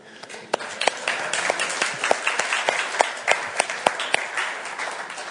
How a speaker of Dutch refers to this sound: Misschien moeten we een applaus geven voor onze leiders.